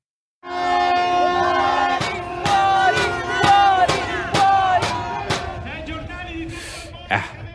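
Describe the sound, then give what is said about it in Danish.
A crowd of protesters in Venice chants a word meaning "out" over and over in a steady, loud rhythm, demanding cruise ships leave the Venice lagoon, while a sustained horn-like tone blares beneath the shouting. “40, 40, 40, kunne I måske høre dem råbe. Det betyder noget i retning af ud, ud, ud.”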